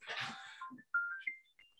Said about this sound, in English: Sorry, that was the timer. It just kind of popped off.